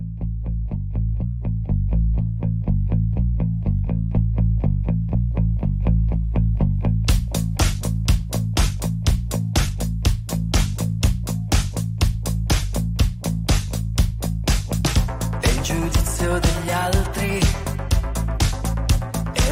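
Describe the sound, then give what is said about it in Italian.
A rock song plays loudly with a steady pulsing bass line; a driving drum beat kicks in after a few seconds, and the sound swells into a fuller, distorted band texture near the end. “Bellissima canzone che sta per arrivare”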